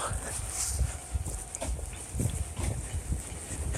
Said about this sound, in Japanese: 鈴がうるさいですめっちゃチャリチャリ言ってますこのチャリチャリの音ですね。